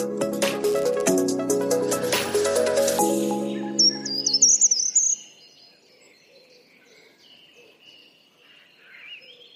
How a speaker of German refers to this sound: So klingt er, der Wald im Barnimer Land Mitte Juni. Es riecht nach Frühling, ja fast schon nach Sommer.